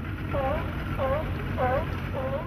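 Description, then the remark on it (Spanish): A motorboat cruising on the calm waters of the Sea of Cortez near La Paz, heading to the Espíritu Santo islands: a steady, low engine drone rumbles continuously with a wash of water noise, while four short, wavering tonal calls repeat at regular intervals above it. “Navegamos en las tranquilas aguas del Mar de Cortés, el ecosistema acuático con más endemismos del planeta.”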